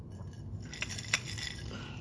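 glasses clinking

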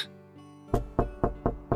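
knocking on a door

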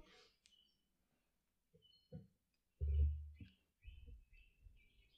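birdsong

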